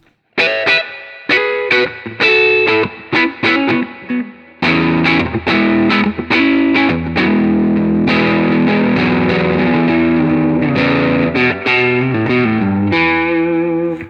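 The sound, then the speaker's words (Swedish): A loud, distorted electric guitar on its neck pickup at full volume: short, choppy chord stabs at first, then a dense run of sustained, ringing chords. Nobody speaks. “Här är då halsmicken på fullt.”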